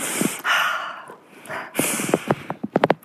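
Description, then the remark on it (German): A person breathes audibly in a deliberate demonstration of breathing as nonverbal communication during sex, with a long airy exhale, a second breath, then several quick sniffing, snort-like breaths. “Und wir können das auch durchaus über unseren Körper machen. Wir können atmen so”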